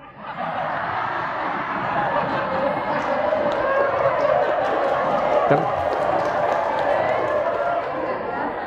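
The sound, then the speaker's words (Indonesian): A large audience claps steadily for several seconds, a dense, sustained wash of applause with scattered laughter and murmuring mixed in, fairly loud and even throughout. “Kenapa tepuk tangan?”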